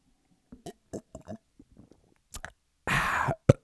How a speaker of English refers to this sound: I'm gonna take a sip of water real quick. Let's get really let's get really close to the microphone for this one.